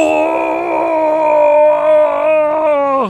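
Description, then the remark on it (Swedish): A person lets out a single sustained, loud roar lasting about three seconds, strained and harmonic, rising slightly then dropping off abruptly at the end. A voice imitating a furious battle cry. “Du känner alla de här känslorna som väller upp ur dig och du vrålar.”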